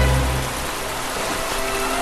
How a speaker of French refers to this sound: Ça, c'est la pluie, hein.